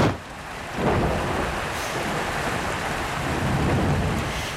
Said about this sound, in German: Als ich dieser Tage mit dem Auto fuhr, unterwegs durch eines dieser gefühlt tausendsten Gewitter dieses nassen Sommers, mit Krach, Donner und Wutregen